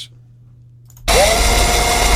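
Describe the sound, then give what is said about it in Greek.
After a second of near silence, an electric shaver abruptly switches on and keeps buzzing, a loud steady motor whine with a bright noisy hiss, alone. “Χειριστική μηχανή.”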